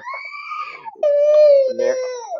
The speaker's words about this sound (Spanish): mi, hijo está jugando a los pececitos, por eso grita tanto. Está muy motivado. Perdón, es que no puedo controlarlo, es incontrolable.